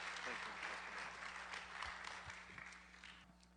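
A room full of people claps steadily, a dense wash of applause that holds for a few seconds before beginning to thin slightly toward the end.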